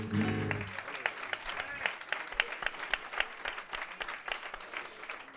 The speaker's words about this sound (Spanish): Quiero una ovación para ellos.